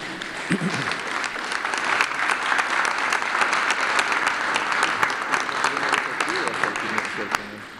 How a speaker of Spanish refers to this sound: Muy bien, pues ya terminamos con esto. Eh, un aplauso y si.